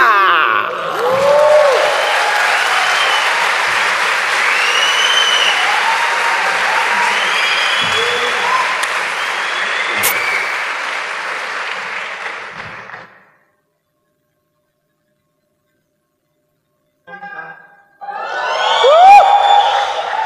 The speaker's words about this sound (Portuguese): Queria que vocês recebessem com muitas palmas.